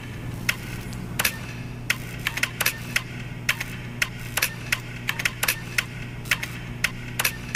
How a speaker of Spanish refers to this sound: Una versión dice que cansado de ser golpeado con prisa toda la semana, cada semana, el teclado lanzó el primer sonido.